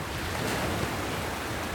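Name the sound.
sea waves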